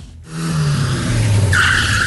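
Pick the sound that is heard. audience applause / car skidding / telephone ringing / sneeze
car skidding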